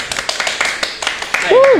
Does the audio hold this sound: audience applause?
yes